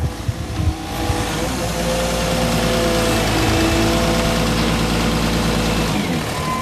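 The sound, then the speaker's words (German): A crane's heavy engine rumbles steadily with a low, droning hum as branches are cleared in a deep-snow forest on the Brühlberg, preceded by a brief burst of clattering near the start; no voices are heard. “Auf der Straße oder den tief verschneite Wald auf dem Brühlberg geht es nicht lang, bis die ersten Äste weggeräumt werden müssen. Mit dem Kran ist das aber kein Problem.”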